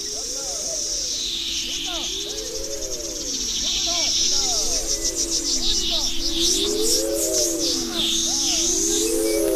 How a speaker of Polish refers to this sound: Ja może zrobię kosmiczny dźwięk, słuchajcie. Ja tu specjalnie na tą okazję, że dzisiaj o, kos o kosmicznych sprawach Robię kosmiczne dźwięki, przepraszam bardzo.